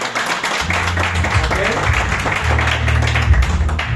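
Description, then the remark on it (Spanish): An audience applauds steadily for a few seconds, a dense, crackling wash of many hands clapping at once, with a low droning tone running underneath. “Claro, regálate un fuerte aplauso por estar con nosotros.”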